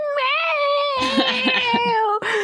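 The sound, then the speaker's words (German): A person imitates a cat's meow in one long, drawn-out, wavering cry that rises and falls in pitch, fairly loud, with no other talking. “Meine ähm. miaut mich nur die ganze Zeit an.”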